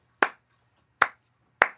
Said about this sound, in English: If I go like this, which is clapping the rhythm of pants, pants, pants. Then you pat your legs with the who needs them rhythm.